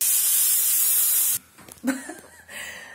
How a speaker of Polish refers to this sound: I tą parą ja tam pięknie po prostu pst, pięknie wszystko najpierw rozmiękczam, później pięknie wszystko wydmuchuję i słuchaj, para zabija wszystkie, no prawie wszystkie tam bakterie i wirusy.